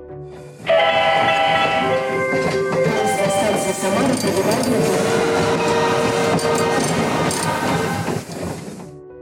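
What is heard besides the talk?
train arriving on rails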